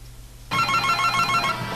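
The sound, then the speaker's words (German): A telephone starts ringing abruptly after a brief quiet moment, its bright electronic ringtone repeating in a steady pulsing pattern, fairly loud, with no voices. “Hört ihr mal eben mit der Musik auf das Telefon gehen?”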